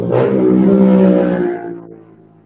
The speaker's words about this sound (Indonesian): Uh, ini motor ini dia.